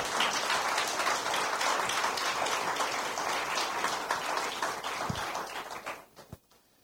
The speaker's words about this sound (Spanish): Dele un aplauso al Espíritu Santo de Dios.